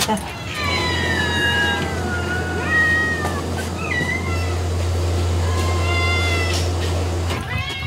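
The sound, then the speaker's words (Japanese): Several cats that live on an island meow repeatedly and overlapping, rising and falling calls, over a steady low engine hum and outdoor background noise, as they are given food outside a shop before it opens. “開店準備を始める前に店の外へ島に住み着いた猫たちへのご飯これも母ちゃんの日課です”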